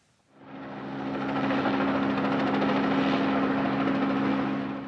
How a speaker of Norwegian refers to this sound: Et redningshelikopter tar av. Et helikopter beregnet for øyeblikkelig helsehjelp.